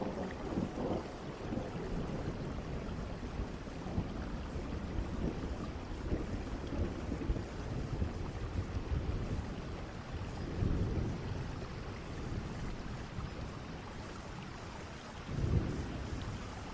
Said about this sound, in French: Tu peux voir la pluie tomber et en même temps, c'est comme si tu pouvais voir entre chaque goutte